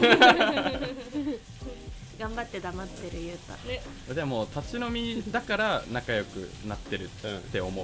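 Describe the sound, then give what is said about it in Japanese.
A sizzling, frying sound runs through the background as food is prepared, with clattering kitchen noise beneath steady conversation between people talking in the foreground. “すっごい仕込みの音が入ってる”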